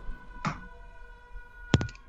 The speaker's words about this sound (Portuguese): Até amassei a lata com cerveja dentro.